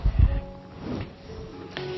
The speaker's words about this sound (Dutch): Dat was even wat water.